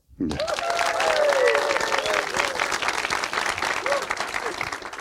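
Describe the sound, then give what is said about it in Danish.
A live crowd bursts into loud, sustained applause that starts abruptly and continues steadily, with a few cheers and whoops rising above the dense clapping. “Velkommen til en helt særlig udgave af Rumsnak, nemlig Rumsnak Live med et spil levende publikum, som man kan høre her.”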